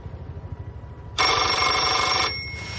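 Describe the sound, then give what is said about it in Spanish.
A telephone in Legasov's hotel room in Pripyat, in the Chernobyl exclusion zone, rings with a single loud, buzzy burst lasting about a second, its dense metallic tone sharp over a low rhythmic rumble, then cuts off abruptly. “Se acerca al teléfono.”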